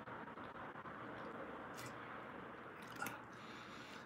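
Someone swigs liqueur straight from a bottle: quiet, wet gulping and squishy mouth sounds over a steady hiss, with a brief sharper slurp near the end and no talking.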